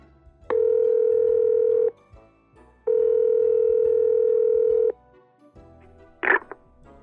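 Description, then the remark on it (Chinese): A telephone line tone sounds while calling the Ocean Hospital: two long, steady mid-pitched buzzing tones, each lasting under two seconds and separated by a short pause, followed by a brief click. “我我打电话到海洋医院给海龙医生，请他帮帮我好了。”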